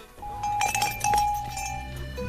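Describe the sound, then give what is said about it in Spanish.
A cowbell clanks several times in quick, uneven strikes, with a bright ringing tone that lingers between hits, moderately loud, with no voices. “¿Te parece raro que salga de detrás de una palmera con un cencerro y un casco de bici?”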